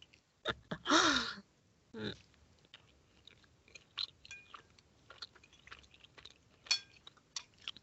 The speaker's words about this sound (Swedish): Okej, okay, jag tar en riktig tugga då. Ja, ja men skål då! Ja, skål. Det blir ingen fras här. Nej, det är bara en massa smask.